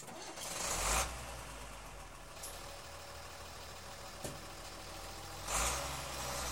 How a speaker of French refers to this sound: Le camion démarra et rejoint rapidement une route caillouteuse qui sillonnait à travers les dunes.